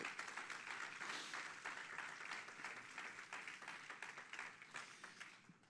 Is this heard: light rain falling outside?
no